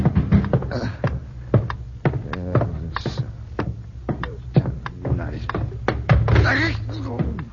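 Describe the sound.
Repeated sharp knocks on a door, fairly close and irregularly spaced, ring out while people talk over and between them.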